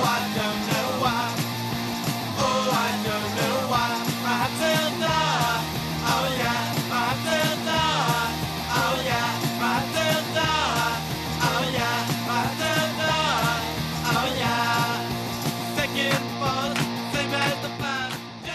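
A fast, loud punk rock song with driving distorted guitars, steady pounding drums and shouted vocals, played continuously at a dense, unrelenting volume.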